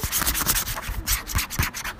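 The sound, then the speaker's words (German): A lilac-coloured plastic mail folder being rubbed, producing a continuous bright, hissy scraping with rhythmic swells of pressure over about two seconds, with no speech. “Die ist auch in so einem Material, das ist so ein bisschen eher Plastik.”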